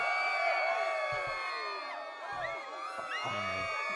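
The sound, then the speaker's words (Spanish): A celebration cheering sound effect: a crowd cheers and whoops continuously, many overlapping high-pitched voices shouting in celebration, staying loud and dense throughout with a few brief low thumps underneath. “Mira, vamos a poner aquí celebración a tope.”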